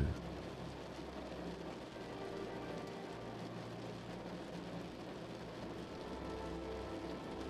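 Steady rain taps against a window at a constant, even level, a dense wash of soft taps with no breaks, heard alone without any voices over the whole stretch.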